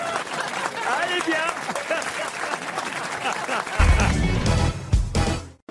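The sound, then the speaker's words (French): A crowd breaks into sustained applause, dense clapping filling the whole stretch with voices mixed in, growing heavier and fuller toward the end before cutting off abruptly. “Bah, alors moi j'ai une petite blague bien modeste après ces ovations.”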